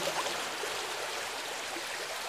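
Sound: river stream flowing water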